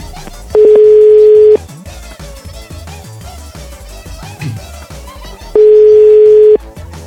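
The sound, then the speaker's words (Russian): Two steady, fairly loud ringback tones of an outgoing phone call to a factory worker in Polyany, each about a second long and separated by a long pause, sounding over quieter background music. “Вот я хочу помочь, я ему звоню.”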